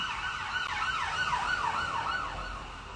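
An emergency vehicle siren wails in rapid rising and falling sweeps over a low traffic rumble, fading slightly toward the end as it passes.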